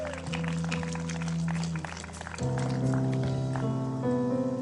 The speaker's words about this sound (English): How about a hand clap for our worship team today? Thank you, guys.